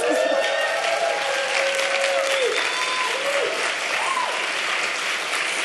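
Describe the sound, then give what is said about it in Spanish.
A live audience in the Sala Julián Carrillo of Radio UNAM applauds steadily in welcome at a concert, dense clapping with a few voices cheering and whooping over the top. “El público presente también les da la bienvenida y por supuesto saluda a todos, todas y todes quienes estén escuchando también el 96.1 de Radio Universidad.”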